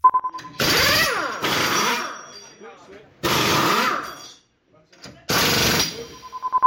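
Four loud, harsh bursts from pneumatic wheel guns during Formula 1 tyre-change practice at the team's Enstone facility, each a rattling blast that winds down in pitch, with short pauses between them and a faint tone under the gaps.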